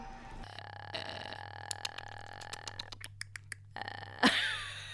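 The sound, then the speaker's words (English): A voice imitates an infected creature's clicking: a throaty, creaking rasp breaks into a rapid series of sharp clicks, ending in a brief harsh burst. Fairly loud, with no talking. “They sound like squirrels on crack. It's like a, an unoiled door being opened”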